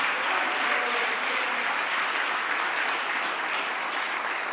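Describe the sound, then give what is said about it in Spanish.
An audience applauds the Lord loudly and steadily, a dense, sustained wash of clapping from many hands that fills the whole stretch without pause. “Déselo fuerte al Señor.”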